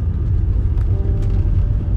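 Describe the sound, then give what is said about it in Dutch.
A site foreman's car drives by going around the block, its engine rumbling steadily, a loud, low, continuous drone with faint higher hiss and no voices. “Gaat ook weer een blokje om. Dat is een polier, Dat met de auto, hè.”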